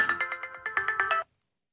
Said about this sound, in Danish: undskyld, det er min telefon, ja.